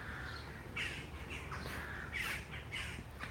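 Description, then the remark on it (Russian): Crows caw harshly and repeatedly at an old cemetery amid drifting mist, about five or six raspy calls in a quick, irregular, agitated sequence over a steady low outdoor rumble. “И вороны разнервничались.”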